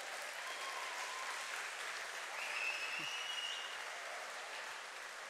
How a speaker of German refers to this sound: Merci vielmals. Der Applaus gilt an dir, Schatz.